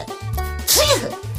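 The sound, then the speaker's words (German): One loud, theatrical sneeze from someone with a cold, a sharp hissing burst that breaks into a voiced "choo" and lasts under half a second, set over steady low background music. “Gesundheit.”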